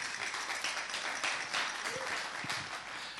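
A crowd applauds steadily for the band's guitarist as the band is introduced, a dense wash of many hands clapping at an even level throughout, with a few faint voices and whoops mixed into the noise.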